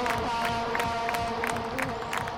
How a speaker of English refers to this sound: No, that's just... the crowd. He's yeah. getting them going. He's kind of like uh, Fireman Ed with his, you know, he gets everybody up and he tries to get everybody going. So that's the entire crowd is clapping.